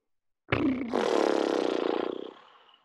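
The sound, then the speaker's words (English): A single loud, rough exhale voiced as a rumbling growl, a person letting out a held breath while imitating a truck engine during a breathing exercise. It rattles steadily for about two seconds, then fades to a breathy hiss. “And now let the air out sounding like a truck.”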